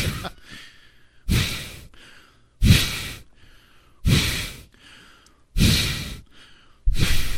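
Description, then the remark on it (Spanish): Loud, heavy breathing, about six forceful breaths in a steady rhythm, each a rough, airy rush with brief quieter pauses between, and no talking. “Déjame escuchar mi respirada”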